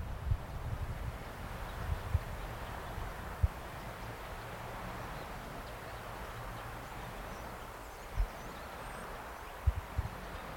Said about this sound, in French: je vais vous mettre ici un bruit que j'ai beaucoup aimé écouter à l'île aux moines. C'est le bruit du vent dans les arbres. On entend les rouleaux de la mer au loin. Et et on entend aussi les bruits d'oiseaux.